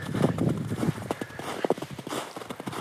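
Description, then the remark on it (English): Footsteps crunch through snow at a steady walking pace, each step a short, gritty compression. The snow is left from a big snowfall a couple of days earlier, about half melted. No voices present. “That's actually snow that you hear me stepping on right now.”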